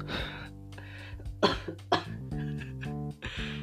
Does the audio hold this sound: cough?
yes